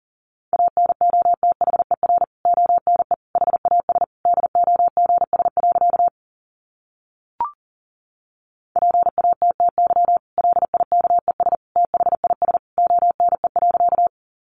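Fast Morse code at about 40 words per minute: a single steady mid-pitched beep keyed in rapid dots and dashes, two long runs split by a brief silence and a click, with no talking.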